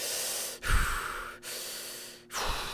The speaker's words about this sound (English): I tend to put my hand over my eyes like I'm trying to shield my face from a scary scene on a movie screen, and I start to breathe really heavily, like I'm about to give birth. You know, like I started doing this.